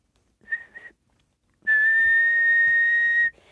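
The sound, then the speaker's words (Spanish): A whistling stovetop coffee maker gives a short warbling toot, then a loud, steady, shrill whistle that holds for about a second and a half before cutting off. “Y, y que lo digas, corrobora el de una cafetera silbante.”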